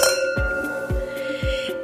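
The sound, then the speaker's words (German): Glasses of 2020 dry rosé wine clink together in a toast, leaving a bright sustained ring, with a few softer taps and low knocks repeating over a couple of seconds. No one speaks. “Also, wir stoßen an zum Wohl.”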